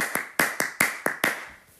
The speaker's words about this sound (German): Wir haben Applaus vergessen, deswegen machen wir jetzt mal für dieses USB-C was.